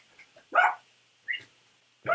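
A dog barks three times in sharp, separate bursts, with short pauses between them. The barks are fairly close and moderately loud, with no talking over them.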